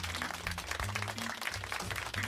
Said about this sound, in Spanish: Un aplauso.